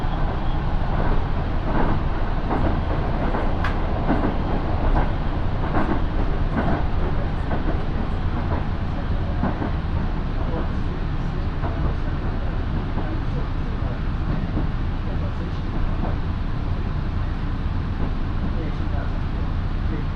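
A steady rumble from inside a local train on the Minobu Line in Japan, travelling from Minobu toward Ichikawadaimon, with sharp rail-joint clicks at irregular intervals over a continuous low roar.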